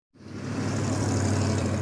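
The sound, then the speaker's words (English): A steady wash of rush-hour road traffic rises quickly and holds, dense engine rumble with a strong low drone and broad hiss, like many cars moving. No one speaks. “That's the sound of rush hour.”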